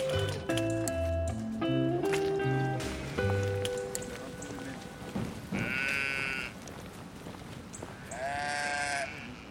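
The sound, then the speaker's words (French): Ewes bleat twice in the latter half, wavering, over a steady patter like light rain, with a musical tone sequence at the start and no talking. The ewes graze the grass cover under and between the rows on an estate. “Hein, les brebis nous permettent d'entretenir euh, les enherbements.”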